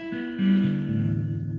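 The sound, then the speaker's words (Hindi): A short run of guitar notes, several plucked tones ringing into one another and sustaining, with no voices over them. “कुछ कर्म है तुरंत परिणाम देता है जैसे मैं ये गिटार बजाऊं”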